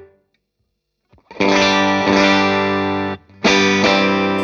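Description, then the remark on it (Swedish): Electric guitar with a split humbucker pickup, one of its two coils grounded: loud, bright strummed chords with a thin, hollowed tone, two sustained strokes separated by a brief gap, heavily effected with distortion and chorus. “Och för er som inte hänger med på vad en splittad handbacker är, det är ju att en handbacker har två spolar och man liksom drar den ena spolen till jord då, då så att den inte finns med i ljudbilden.”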